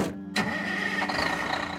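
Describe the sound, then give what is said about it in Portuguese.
A moving truck's engine cranks and catches, then settles into a steady, rumbling run with a faint whine above it, fairly loud, with no voices. The truck is setting off for Osasco. “Sob aplausos e pedradas, ela subiu no caminhão de mudança rumo a Osasco”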